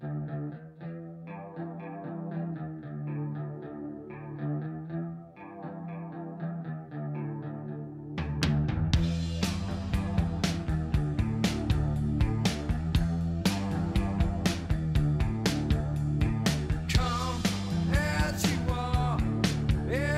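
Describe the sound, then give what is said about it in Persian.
A rock song opens with a clean, chorus-drenched electric guitar riff alone; around eight seconds in, distorted guitars, bass and pounding drums crash in loudly. No one speaks. “این موزیک برای طرفدارای راک بسیار شناخته شده است.”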